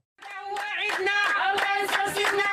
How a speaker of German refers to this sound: Dies ist unser Fest. Singen und klatschen sie in den ankommenden Bussen. Die Erdbeerpflückerinnen Marokkos feiern ihre Rückkehr in die Heimat, begleitet von Kamerateams lokaler Fernsehsender.